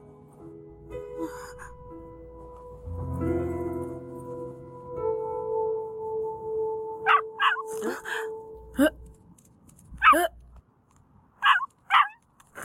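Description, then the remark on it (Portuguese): A dog lets out a series of short, sharp barks, spaced irregularly, after a stretch of drawn-out whining tones. “É o cachorro que o Alone salvou há dois anos?”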